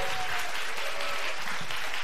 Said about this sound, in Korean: 와 일단 박수 먼저 한번 부탁드릴게요.